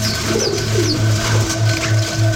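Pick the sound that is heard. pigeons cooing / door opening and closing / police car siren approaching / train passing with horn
pigeons cooing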